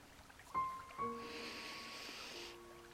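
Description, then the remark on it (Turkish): A long, deep breath drawn in through the nose, a soft airy hiss lasting about a second and a half, over faint, steady background tones. “Ve şimdi kocaman büyük bir nefes alıyorum.”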